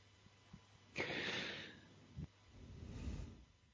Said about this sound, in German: du, du, du schnaufst.